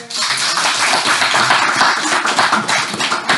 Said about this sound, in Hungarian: Szeretnék is egy tapsot neki kérni.